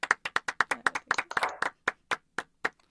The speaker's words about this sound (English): First of all, a little round of applause for the performance by our third party,